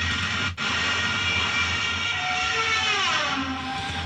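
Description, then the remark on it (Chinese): A diving Stuka dive bomber roars loudly and continuously, its engine blended with a high, wailing whine from a siren-like whistle fitted to the plane, whose pitch bends and shifts toward the end, with a momentary dropout near the start and no talking. “如果它向下俯冲的时候，就会发出这种声音。”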